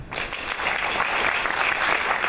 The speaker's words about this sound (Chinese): 我们给他鼓鼓掌。